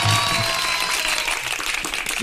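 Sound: applause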